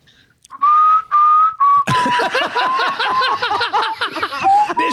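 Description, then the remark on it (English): A person whistles the theme music of a TV station, starting with three long held notes, then keeps whistling shakily as loud laughter breaks out over it. “can you whistle the, the theme music of that station?”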